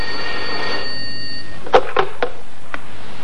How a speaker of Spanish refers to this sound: ¿Quién estará llamando a estas horas? Cógelo tú, anda, cógelo.